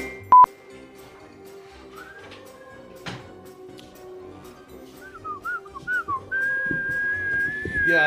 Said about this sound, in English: he was way over there, and I thought he was the one whistling.